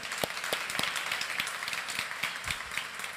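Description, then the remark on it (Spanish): An audience applauds to welcome three guests, a dense, steady wash of many hands clapping with a few sharper individual claps standing out, holding a fairly even level for about three seconds with no voices. “Y voy a pedirle a mis amigos, hoy tenemos un invitados, tres invitados me los quiero darles un aplauso a los hermanos Murguía.”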